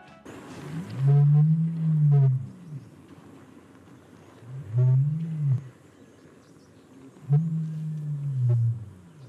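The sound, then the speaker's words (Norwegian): Three deep, booming low roars from a male ostrich, resembling a lion's roar, each lasting over a second and evenly spaced, resonant, with no talking in between. “Kanskje det mest oppsiktsvekkende med strutsen er at hannstrutsen kan brøle, omtrent som en løve.”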